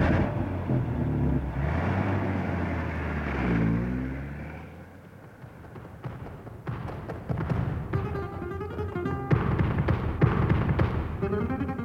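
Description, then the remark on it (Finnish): A car engine hums and rises in pitch as it accelerates, then settles into a steady driving rumble with occasional knocks and rattles, and no one speaking. “Hyppää autoon, Pavel. Selvä. Minä ja Pekka ajamme jäljessä.”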